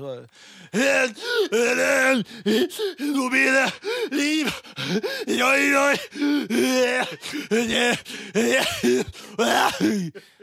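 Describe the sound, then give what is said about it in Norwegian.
A man imitates an exhausted singer, getting out a word or two in a strained, sing-song voice before loudly gasping for breath, again and again in a choppy rhythm. “Og uh, han var så sliten, han greide å synge ett ord, liksom, og så måtte han trekke pusten.”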